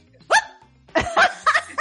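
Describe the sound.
A person mimics a dog's bark to show a dog that does not yet bark how to do it, with a loud, sharp yelp followed by a short burst of three or four rough, voiced barks.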